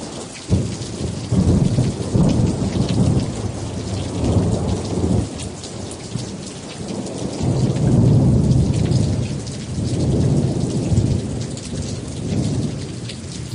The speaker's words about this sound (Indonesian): Angin dingin berhembus, Sesaat kemudian mendung tebal menggelayu di langit. Dalam waktu singkat, hujan turun sangat deras, hingga Malik bin Dinar dan Sabit al-Bunani mulai kedinginan.